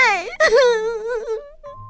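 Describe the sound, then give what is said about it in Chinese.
A girl cries as she runs out, in a long, wavering wail that rises, catches on a sharp sobbing breath, then trails off into a lower, drawn-out moan before fading out. “少女一面哭泣，一面跑了出去，老爷爷跟老婆婆在后面追着。”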